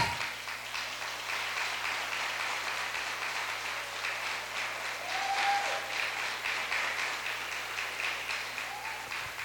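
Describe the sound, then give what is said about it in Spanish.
A church audience applauds the pastor's children, who have been asked to stand, steadily for several seconds, a dense, even wash of clapping hands with no pauses, while a couple of faint whistles or shouts briefly rise above it. “Démosle un aplauso a esta gente.”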